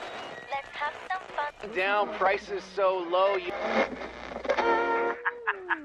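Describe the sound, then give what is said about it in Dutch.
Overlapping radio stations picked up by a dish on a camper roof in the desert at night under a clear starry sky crowd together in a steady hiss of static, fragments of pop music, chatter, ads and jingles bleeding into one another without any clear words, ending in a few short chirps and a sliding tone. “Maar er zijn te veel radiozenders in de lucht, zelfs midden in de woestijn. Hij hoort alleen pop, gekakel, reclame, jingles.”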